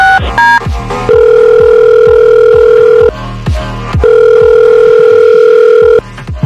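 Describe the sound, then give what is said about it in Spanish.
A telephone ringback tone plays while a call to a man's wife is being placed: two long, steady, mid-pitched tones separated by a short pause, preceded by a few quick dialing beeps, loud and with no talking. “Ahí estamos marcando.”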